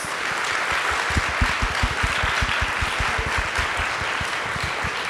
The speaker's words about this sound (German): Heute zu Gast bei Eat, Read, Sleep. Dörte Hansen, bitte auf die Bühne. Riesigen Applaus.